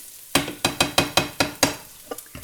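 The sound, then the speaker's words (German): Pan-fried vegetables, now about done, are stirred in a pan with a quick run of about seven rhythmic scraping strokes, fairly loud, then a few softer taps. A faint sizzle sits underneath, and no one speaks. “Mein Pfannengemüse ist mittlerweile, ich sag mal, fertig.”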